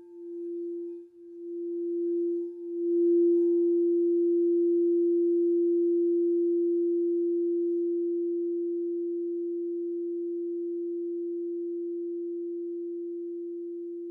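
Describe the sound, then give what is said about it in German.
A crystal singing bowl tuned to the heart chakra, sounding at the start of a meditation, hums a single pure, steady tone that swells in over the first few seconds, then rings on alone for a long time, fading only slightly. “Die Meditation beginnt und endet mit dem Klang einer Kristallklangschale, die auf das Herzchakra gestimmt ist.”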